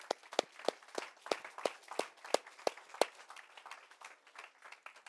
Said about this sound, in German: Das war ganz schwach, aber geben wir Jesus einen Applaus, der hat es verdient.